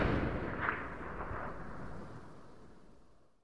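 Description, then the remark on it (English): A single loud, booming blank gunshot, fired by igniting powder as wooden gates are pulled open to start a turkey race, then rolls into a long rumbling tail that slowly fades away over a few seconds, with no voices present. “Everybody's like shouting to cheer people on and then the gates those those wooden gates get pulled open and you hear a blank gunshot as somebody ignites powder there's this big boom”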